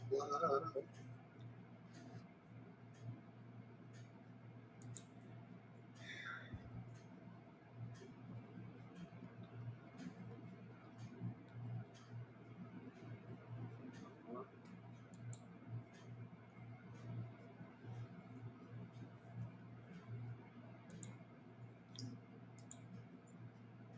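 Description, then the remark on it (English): Sharp, irregular clicks keep sounding throughout, some in quick pairs, others spaced apart, fairly soft, over a steady low hum and faint murmur. “I hear a lot of clicking going on over there, y'all. A lot of clicking on that side right now.”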